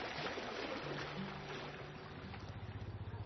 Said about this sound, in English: I want you to imagine that you are at the Jordan River and as you're there, you, you see uh, the reflections in the water. You begin to hear the sound of the water just gently splashing.